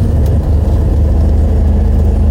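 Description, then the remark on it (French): A steady low engine rumble fills the space while riding inside a moving bus headed to the swimming pool, with a constant droning hum and road noise throughout and no one speaking. “Puis là, donc direction, je suis dans le bus, Ils à la piscine.”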